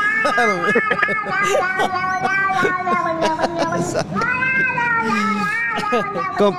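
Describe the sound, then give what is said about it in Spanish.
A cat meows over and over in loud, drawn-out, high-pitched cries whose pitch bends and wavers, the meows running almost continuously for several seconds. “Ah, échese, uh, yo, échese el grito, mamá. Miau”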